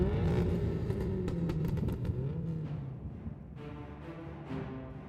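Engines of trucks moving outside a camp rumble steadily and loudly throughout, a deep continuous drone with a wavering, slightly rising and falling pitch and occasional brief rattles on top, echoing off mountain walls like thunder. No one speaks.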